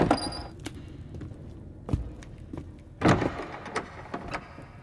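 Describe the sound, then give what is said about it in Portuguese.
A man enters a room and locks himself in: a door thuds shut, followed by a series of sharp clicks and clunks like a latch and lock being worked. Moderately quiet, with no voices. “Ele entra e se tranca.”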